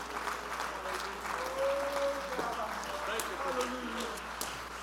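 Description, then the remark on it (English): A crowd stands and claps steadily for several seconds at a preacher's call, a dense wash of many hands, with murmuring voices and a few raised shouts mixed underneath. “Stand to your feet, clap your hands, and say, I'm going to have victory.”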